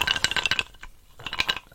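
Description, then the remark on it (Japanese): Ice cubes rattle and clink against a glass in two quick bursts of bright, high-pitched taps separated by a brief lull, with no one speaking. “何を飲もうかなと思ったんですけど一応ですね今氷だけグラスに氷だけ持ってきました”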